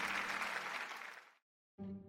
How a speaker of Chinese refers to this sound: 各位先生、女士，欢迎来到异想天开拍卖会。今晚将拍卖出十三件艺术品，让我们用最热烈的掌声来迎接最美好的一晚吧！